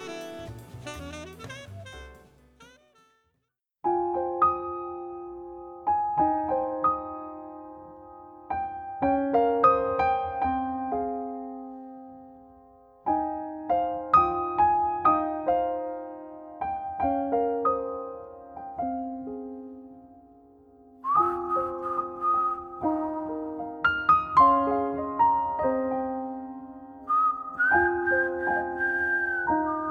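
A slow jazz ballad played by a piano and a singer, with ringing chords that decay between phrases under a smooth, sustained melody, close and clear, after a brief opening flourish.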